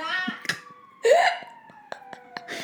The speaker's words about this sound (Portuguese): Esta ambulância. De todas as vezes!